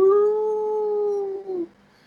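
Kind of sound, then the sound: vocal imitation, person imitating a howl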